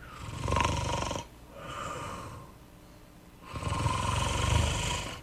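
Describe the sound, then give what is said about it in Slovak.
Soft snoring from a sleeping person: a raspy inhale, a quieter breath out, then another longer snore, gentle with no talking. “a po chvíľke múdry kráľ na tróne skloní svoju hlavu, koruna mu spadne na zem a Šašo sa vytešuje, lebo počuje také jemné”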